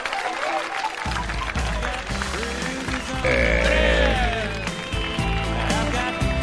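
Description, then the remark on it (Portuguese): A crowd at a Brazilian rodeo, broadcast live by Brasil Rodeio, applauds and cheers loudly and steadily, urged to applaud standing, the clapping blending with a band playing full, sustained music and a few voices calling out over the noise. “Juntinho com a galera da Oeste Capital, pode aplaudir de pé, Brasil.”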